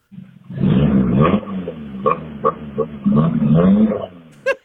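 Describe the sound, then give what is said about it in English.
A four-cylinder car engine revs in several throaty surges, its rumbling pitch climbing and dropping between bursts, then cuts off with a sharp, brief pop at the end. “It's a four cylinder with something done.”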